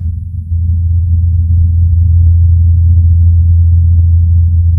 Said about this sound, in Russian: Он умеет летать в марсианской атмосфере. На удивление, долго там летает, он уже э, давно превысил все свои расчетные сроки. И звук этого вертолетика, записанный марсоходом, выглядит вот так